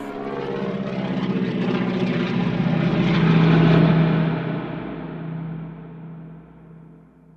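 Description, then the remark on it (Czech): A propeller plane's engine roars and drones steadily during an aerobatic maneuver, diving toward the ground and gaining speed, its pitch shifting as it swells louder toward the middle, then gradually fades away as the aircraft pulls off. “Mechanik Budín křečovitě svírá ruce a zavírá oči. Všem, co letoun sledují, mrazí vší.”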